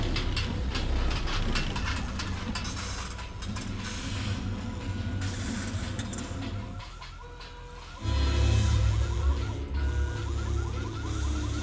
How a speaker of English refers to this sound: In just a moment, Steve is going to stop the train.